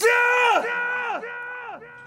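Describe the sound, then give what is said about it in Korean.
A shrill, whining dental drill boring a hole in a tooth at a dentist's rises in three loud bursts, each one sliding downward in pitch as it trails off, with a harsh, scream-like edge and no talking. “이가 갈리는 듯한 소리. 이에 구멍을 내는 소리. 그리고 누군가의 비명 소리.”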